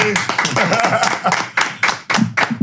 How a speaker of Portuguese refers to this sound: Palmas pra eles.